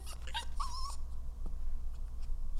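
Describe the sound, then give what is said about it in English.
A dog whimpers: a few short, high yips followed by a brief, thin, sustained whine, then quiet with a low background hum. No one speaks. “I uh, should probably take this demon for a walk.”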